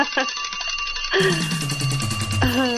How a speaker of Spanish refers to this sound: ¿Pero la campana sonó?